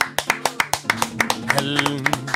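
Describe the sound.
Steady, rhythmic clapping with sharp, evenly spaced claps at a brisk pace, joined midway by voices calling out over the beat.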